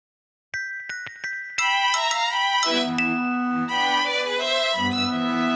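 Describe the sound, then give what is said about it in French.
Notification chimes sound clearly from a laptop left switched on in a Paris hotel room: four quick bright dings, then a fuller layered electronic jingle of ringing tones that keeps going to the end. No one speaks. “Quelques heures plus tard, dans une chambre d'hôtel parisienne à la décoration empire, D'autres tintements se firent entendre depuis un ordinateur portable resté allumé”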